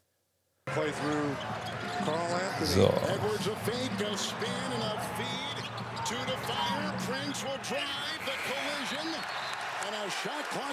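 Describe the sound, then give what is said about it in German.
Basketball game broadcast: a ball bounces repeatedly on a hardwood court amid sneaker squeaks and a steady arena crowd murmur, with a brief voice near the start. “Ich glaube, ich mache das mal leise, damit wir zumindest ein bisschen Game-Sound haben hier, ne?”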